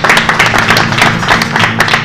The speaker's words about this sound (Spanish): Fuerte los aplausos.